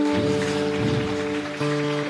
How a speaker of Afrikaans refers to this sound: Kom ons gee hom 'n lekker hande klap vanoggend.